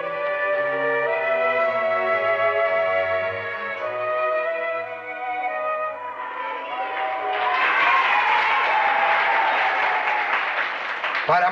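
A large crowd breaks into loud, sustained applause that swells and grows denser, preceded by a few seconds of sustained voices, as Don Bosco speaks to them on a visit to a Salesian school in Querasco.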